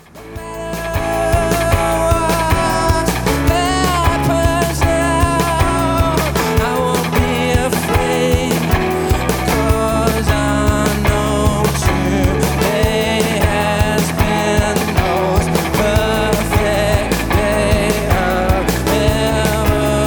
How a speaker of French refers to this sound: Je vous passe tout de suite un petit extrait de ce fameux live de 2006 dans lequel on entend bien ce décalage rythmique grâce à la guitare